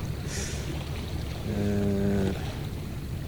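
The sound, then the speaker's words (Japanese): Seaside ambience on a cloudy day with a steady, breezy wash of waves and wind, joined briefly near the middle by a humming, engine-like drone from a passing boat. No one speaks. “えー、この海岸の左側、えー、4組か5組ぐらいの子供連れの家族が来ててバーベキューをやっていて釣りをやっていて子供は海に入って泳いでると。”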